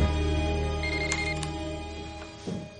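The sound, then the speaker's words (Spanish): A telephone rings with a bright, buzzy electronic tone, a couple of sharp pulses standing out over a steady low hum, with no one speaking, as someone mutes a television and gets up to answer the call. “Dave quita el volumen del televisor y se levanta para atender la llamada de teléfono.”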